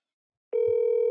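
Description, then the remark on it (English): A steady electronic call tone plays from a phone speaker held up to a microphone after a half-second of silence, a sustained hum with a faint low thump partway through, fairly loud. “Crazy thing is, this is the best technology me holding the phone to the microphone.”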